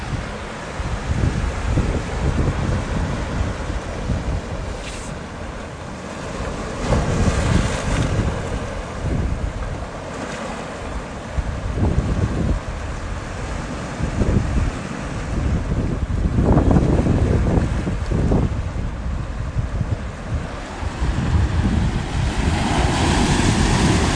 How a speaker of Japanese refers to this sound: 今来ているのは八丈島の東側の港の海水浴場ですね朝日がもう昇ってきてまして今から暖かくなりそうですいい天気です波の音伝わりますでしょうか